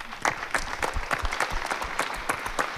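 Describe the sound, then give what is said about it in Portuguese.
An audience claps steadily as actor Jorge Serafim is called to the stage, a dense patter of many hands forming a continuous, moderately loud wash of applause with no voices over it. “Uma salva de palmas.”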